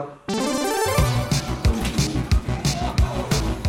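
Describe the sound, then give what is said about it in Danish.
A loud, busy din kicks in suddenly: overlapping electronic tones and chatter from a crowd of kids, with steady thumping beats running underneath, in a packed arcade hall, Professor Olsens Spilleland in Skala, with blinking lights. “Blinkende lys, hæfte lyd og masser af kids.”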